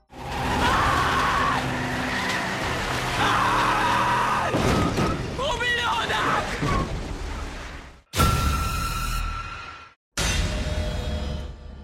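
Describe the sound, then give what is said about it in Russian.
A car engine roars as tires squeal and skid loudly, with a few abrupt bursts of screeching and revving as a woman drives a car over a man several times. The sequence is intense, cutting off sharply between passes. “Она несколько раз переезжает его машиной.”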